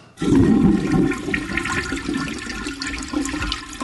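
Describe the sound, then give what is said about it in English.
A toilet flushes, a loud rushing surge of water that starts abruptly and then settles into a steady gurgling drain as the bowl refills. No one speaks. “I was wondering who was flushing.”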